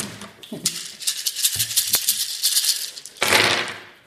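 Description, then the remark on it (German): A bucketful of dice rattles and clatters in a dense, crisp burst of many small clicks, building to a louder tumbling rush near the end, with no voices. “Wie gesagt, äh, Eimer voller Würfel.”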